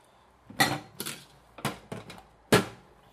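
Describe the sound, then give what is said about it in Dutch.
Several sharp clinks and clatters of dishes and cutlery knocking together as someone does the washing up, irregularly spaced over a few seconds, moderately loud, with no talking. “Hè, want ja, ik zit er ook alleen maar tegen mijn eigen ontklappen terwijl ik mijn afwas doe.”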